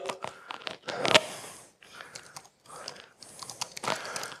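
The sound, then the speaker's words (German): Rapid typing on a computer keyboard into an application panel, a steady patter of crisp key clicks in irregular bursts with brief pauses, a few louder strikes standing out. “ein, ein, ein, ein, ein Pendel, in dem ich gleich äh, tippen kann.”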